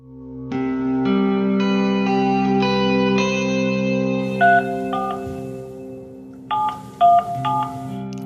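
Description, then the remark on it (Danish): A phone number is keyed in with a few short touch-tone beeps, arriving in two small bursts over a steady, layered electronic drone that fills the whole clip, as a call is placed to a woman with an interpreter present, in winter 2015. No one speaks. “står sammen med en iransk tolk i gang med at ringe op til en kvinde, som måske kan være hans biologiske mor.”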